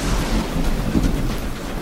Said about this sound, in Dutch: Het stormt in heel Europa.